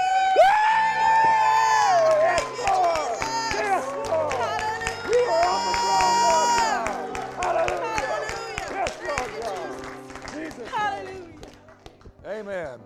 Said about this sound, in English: So we're going to do something. We don't normally do this, but I'm going to ask you to give a shout to the Lord, and we're going to clap and we're going to shout.